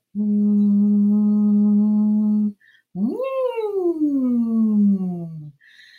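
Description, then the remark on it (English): Someone, lips completely around a drinking straw, blows air and sound through it: a steady, buzzy hum held for a couple of seconds, a short pause, then a tone that swoops upward and slowly slides back down. “So you're putting your lips completely around the straw and you're blowing air and sound through it.”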